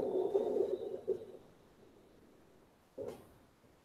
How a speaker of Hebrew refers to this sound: אז עכשיו שמעתם רוח על מאדים.